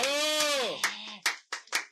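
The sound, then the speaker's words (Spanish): A sustained high voiced cheer gives way to a handful of sharp, separate claps in an uneven rhythm, a brief and sparse burst of applause for a professional cosplayer guest on a show. “Un aplauso.”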